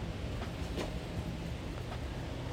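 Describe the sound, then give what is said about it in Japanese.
Steady, dense hiss of heavy rain pouring down outdoors, a continuous wash of sound with no pauses, moderately quiet and heard on its own without any voices. “なんかこう雨は降ってるんだけど”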